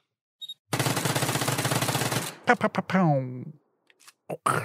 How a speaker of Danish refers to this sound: Ja, og tak fordi du gad at stå, øh, stå, øh, stå ryggen mod muren til de her 10 skud. Tak.